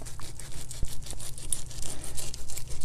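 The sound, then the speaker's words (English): A knife saws through tough pineapple rind, trimming off the harder outer part to get at the juicy inside, making rhythmic rasping and crunching strokes that repeat steadily with a few sharper snaps, with no one talking. “just going to trim off this harder outside and getting right into the juicy inside.”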